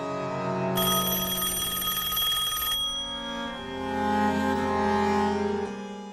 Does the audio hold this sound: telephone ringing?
yes